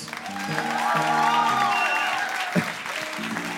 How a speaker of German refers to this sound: Großen Applaus.